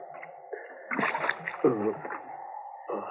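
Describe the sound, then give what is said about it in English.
A short burst of water splashing and sloshing from a container as water is brought to a man who has been shot, moderately loud, lasting about a second, with a faint voice murmuring around it. “Here's the water.”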